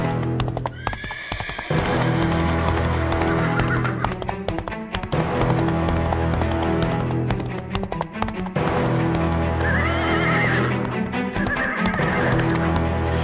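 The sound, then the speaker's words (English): Horses ridden by bandits neigh and whinny loudly at night as they arrive during a celebration, with clip-clopping hooves beating steadily underneath; no one speaks. “In the bar, everything was joy, but that night, during the celebration, some bandits on horses arrived.”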